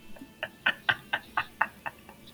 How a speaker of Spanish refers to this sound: Así se escucha. Que suene como el perro tomando agua.